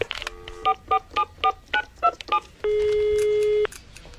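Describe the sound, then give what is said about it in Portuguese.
A quick run of about seven telephone keypad tones as a number is dialed, evenly spaced and clear, followed by one long steady ringing tone lasting about a second as the call goes unanswered, with no voices. “Deixa eu ligar de novo.”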